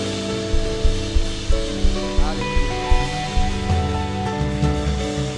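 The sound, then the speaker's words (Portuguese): An audience applauding the Lord after a prayer, a dense, steady wash of clapping that continues throughout, mixed with music carrying sustained tones and a pulsing low beat. “Aplauda ao Senhor, Deus desse lugar.”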